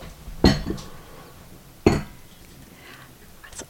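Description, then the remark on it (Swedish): Thin porcelain coffee cups clink sharply twice as they are set down on a hard surface while coffee is poured, with a lighter tap after the first and a faint knock near the end, no voices. “Låter inte de här kopparna så här fint när man jo, sätter de ner inte...”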